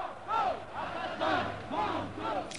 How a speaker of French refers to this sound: En ce moment même, place Clichy à Paris, un cortège s'est formé à l'appel de plusieurs organisations de gauche.